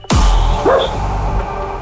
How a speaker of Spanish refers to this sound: El perro, el perro está de acuerdo, ¿eh? Está ahí, el perro riendo decir algo.